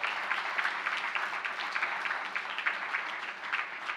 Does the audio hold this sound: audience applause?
yes